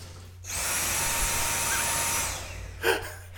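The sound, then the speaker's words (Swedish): A modern cordless vacuum cleaner switches on at the press of its trigger with a high, steady motor whine for about two seconds, then cuts off, followed by a brief clunk. Fairly loud, with no talking. “alla vet hur en sladdlös dammsugare ser ut”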